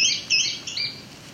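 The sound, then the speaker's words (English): A small sparrow-like bird gives a quick run of high, thin chirping notes over about a second, clear, then the sound fades into quiet background hiss. “Little sparrow, like bird.”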